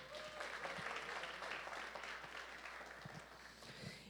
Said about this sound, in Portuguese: dá uma salva de palmas para ele aí.